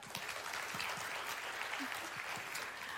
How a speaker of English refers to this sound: Will you clap if you've ever heard that?